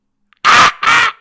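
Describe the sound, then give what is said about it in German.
A person imitates a seagull with two loud, harsh squawking cries in quick succession, each lasting about a quarter second with a short gap between. “Ey, das, das ist die Möwe. Das ist die, die, die Möwe, die dir das Eis aus der Hand klaut.”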